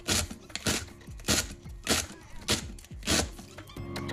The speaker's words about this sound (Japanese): 野菜だね野菜切ってんねこれいいねすごい生活感がある